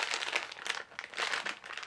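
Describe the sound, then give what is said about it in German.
Crinkling eggshell-coloured food packaging of a roasted-garlic product being handled, a steady run of crisp, bright rustles and crackles with brief lulls, fairly quiet overall and with no voices. “Jetzt geht's gleich Das ist so ähm, Eierschale-Farben, die Verpackung.”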